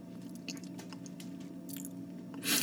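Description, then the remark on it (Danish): Crackling, crunchy static fills a bad call line with choppy audio dropouts that occur each time the mute button is pressed on and off, with scattered pops and bursts over a steady low hum, growing to a loud burst of noise at the very end. “Lyden hakker, knas på linjen, båndsalat, lydsvigt, tekniske udfordringer, bla bla.”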